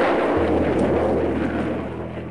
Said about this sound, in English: Those of us in Britain who have listened to the roar that followed the explosion of a V 2 on arrival will certainly recognize it.